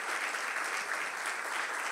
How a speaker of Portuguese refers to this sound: Amém, gente? Vamos dar uma salva de palmas a Jesus.